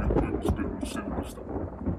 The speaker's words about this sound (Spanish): Está lloviendo súper duro y cayendo truenos horribles.